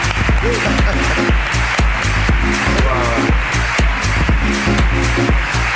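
An audience applauds loudly and steadily for several seconds, with a dense wash of clapping and regular sharper claps giving it a rhythmic pulse, while voices and tonal sounds carry on underneath.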